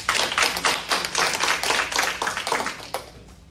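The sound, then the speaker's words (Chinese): An audience at a weekly training class applauds steadily in thanks, dense overlapping claps forming a continuous patter that stays fairly even before thinning slightly at the end. No one speaks. “那我想借由大家的掌声，感谢以上所有的人，谢谢你们。”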